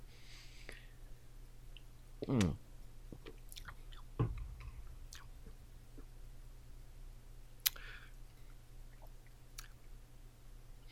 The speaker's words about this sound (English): Uh, so here we go, going in for the swig. For you un Australians mm-hmm. out there, swig is basically a sip.